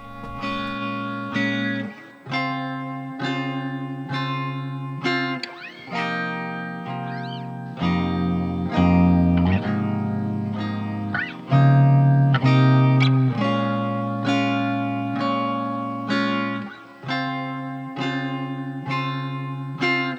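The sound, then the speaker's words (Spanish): A love song plays loudly and continuously, built on sustained, heavily processed synth chords that shift every couple of seconds in a steady rhythm, with no voices heard. “Vamos ahora con una canción de amor de las que me gustan.”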